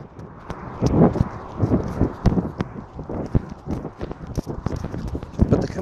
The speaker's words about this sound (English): I'm just walking up to uh, walking up to the parkway here. Oh, there we go. You can hear me bouncing a little bit because I got to run across the crosswalk. This one's kind of short.